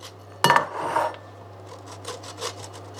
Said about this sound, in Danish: Nu river jeg osten ned i en skål og jeg river osten